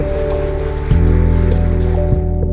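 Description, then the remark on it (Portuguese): A crowd applauds loudly for God in a steady, dense clatter of clapping, with sustained musical tones holding underneath throughout. No one speaks. “Você pode aplaudir bem forte ao nosso Deus.”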